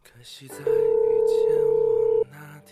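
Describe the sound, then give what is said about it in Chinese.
A telephone ringing tone sounds once as a loud, steady mid-pitched beep lasting about a second and a half, rising above a soft background and then cutting off abruptly, as a man standing on a cold street in China's far north calls a woman in the south. “北方先生站在寒冷的大街上，拨通了南方姑娘的电话。”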